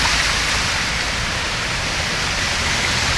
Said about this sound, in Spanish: en la madrugada, en algunos sectores de San Salvador se puede apreciar este, las calles anegadas, inundadas, los vehículos pasando, pero una tormenta nada más basta para que algunas calles se inunden como la que estamos observando en este momento.